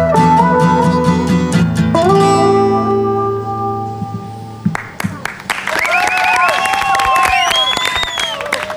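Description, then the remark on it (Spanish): A live song rings out its final chord, then a large crowd bursts into loud applause, with dense clapping, cheers and shrill whistles filling the last few seconds. “el aplauso de la multitud para … junto a … haciendo …”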